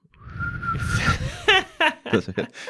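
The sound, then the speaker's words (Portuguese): A person imitates a whistle with a steady, sustained tone lasting about a second, followed by short bursts of laughter and voiced sounds. “se as mulheres, quando estão excitadas, a vagina assobiasse.”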